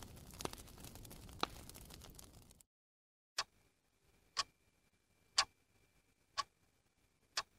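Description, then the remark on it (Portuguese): A clock ticks steadily, about one sharp click per second, five ticks in all, following a brief burst of rustling noise and a moment of silence. A faint steady hum sits beneath. “O relógio marcava três e três quando começou a chover intensamente.”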